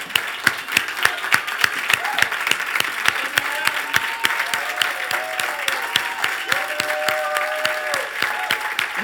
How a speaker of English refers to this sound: if you appreciate what they've done for you and for your family, what they've done for the, for the body of Christ, I ask that you give them a really good applause. And that if it's not too much, that you stand on your feet.